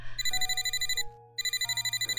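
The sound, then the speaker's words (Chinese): A telephone rings with a rapid, trilling electronic tone in two bursts split by a brief pause, bright and high-pitched over a steady low hum. No one speaks. “周伯言用完早餐后，接到了 Kevin 的电话，挂断电话之后，他走到落地窗边，一言不发的看着外面的雨天。”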